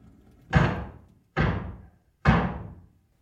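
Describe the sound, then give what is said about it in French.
Three loud, heavy knocks on a door, evenly spaced about a second apart, each one a booming thud that rings out briefly before the next. No voices are heard. “Comme ils commençaient à se chauffer, ils entendirent frapper trois grands coups à la porte.”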